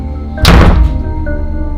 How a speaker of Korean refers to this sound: 그런데 그때 스님이 급히 안방문을 닫으셨어요.